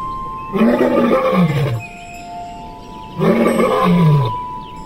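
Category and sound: animal, tiger roaring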